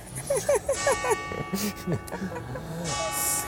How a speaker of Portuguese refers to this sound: é, vai bater nove vezes. Vai, espera, tudo. Aí, gente, você sabe que você está na Itália quando você começa a escutar sino. A igreja não falta, né?